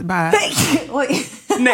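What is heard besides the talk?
sneeze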